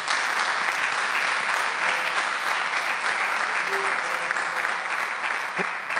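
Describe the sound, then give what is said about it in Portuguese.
An audience applauds the Lord steadily, a dense, continuous wash of many hands clapping at an even, loud level for several seconds with no voices standing out. “Você pode aplaudir ao Senhor, amém? Aplauda o nosso Deus.”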